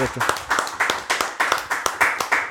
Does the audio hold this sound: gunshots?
no